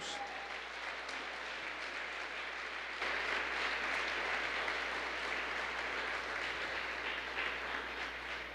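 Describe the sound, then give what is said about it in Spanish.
An audience at a church service breaks into sustained applause for God, a dense wash of many hands clapping that swells slightly after a few seconds and continues steadily without voices on top. “Vamos, dale ese aplauso a Dios.”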